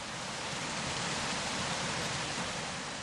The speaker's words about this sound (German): Wo der Bach über einen Felsriegel springt und die Wand überhängt, wird die Szene wildromantisch.